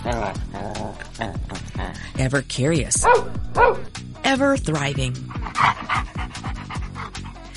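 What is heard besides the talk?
dog barking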